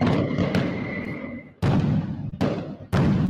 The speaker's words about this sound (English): Fireworks. Or him falling stairs. Fireworks.